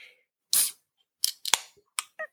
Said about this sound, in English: So I'm going to put a sound of me opening the beer. Ready?